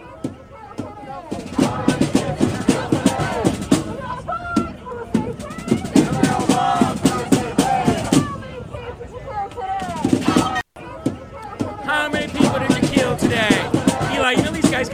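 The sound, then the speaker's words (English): A loud crowd of Palestinian protesters chants in unison, many voices rising and falling together over sharp, rapid percussive bangs that run almost without pause through the whole stretch. “So when you see these scenes, ladies and gentlemen, now I know that these are Palestinian protesters”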